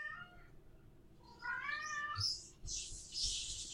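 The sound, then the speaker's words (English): A cat lets out a rising, drawn-out meow followed by louder, strained yowls, insistent, with no talking over it. “The cat's going nuts over here.”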